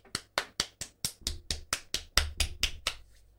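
A single person claps into a microphone about a dozen times in a quick, steady rhythm, applauding Google, each clap sharp and bright with a brief decay, and nobody speaks.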